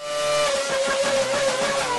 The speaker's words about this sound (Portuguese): Bem, agora a gente vai começar os spoilers, então. Vinheta de spoilers.